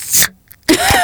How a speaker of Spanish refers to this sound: voy a abrir una lata.